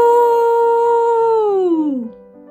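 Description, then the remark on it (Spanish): An elephant raises its trunk and trumpets once, loud: a long, brassy, sustained blare that holds steady for about two seconds, then slides downward in pitch and cuts off. “Se levantó, levantó la trompa y gritó con todas sus fuerzas ¡Turururú!”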